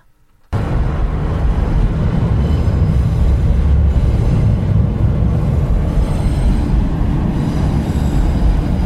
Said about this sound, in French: Au-dessus du pont, ce train qui monte à Paris, tous ces gens qui vont là-haut, peut-être un dîner d'affaires, peut-être un week-end en amoureux, peut-être euh, retrouver une dernière fois cette grand-mère qui va mourir, je ne sais pas.